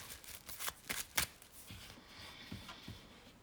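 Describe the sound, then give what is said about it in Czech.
Tarot cards being shuffled for a tarot reading, a quick run of crisp papery riffles and flicks for the first second and a half, then softer, sparser slaps and rustles, with no voices. “Já už se dívám na fotky vás obou, míchám u toho karty a my se spolu podíváme, co nám Tarot poví o vás dvou.”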